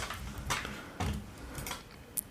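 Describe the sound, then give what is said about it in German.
Scattered keyboard keystrokes click at an uneven pace, a handful of soft taps, with a faint background hiss and no one speaking. “Heute hört man mich auch tippen, glaube ich.”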